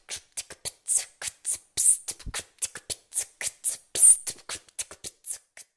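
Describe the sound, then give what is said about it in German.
A child beatboxes a drum beat with quick, rhythmic mouth percussion: sharp breathy hisses and clicks, some with a low thump, repeating steadily for several seconds. “Beatboxings finde ich cool, weil das klingt so wie manche Instrumente, aber man braucht keine Instrumente und ich finde es auch ein bisschen schwer und mit ein bisschen Übung gelingt es auch einem.”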